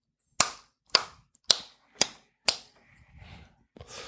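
Five sharp, loud hand claps in a steady, even rhythm about half a second apart, followed by softer rustling noise with no talking.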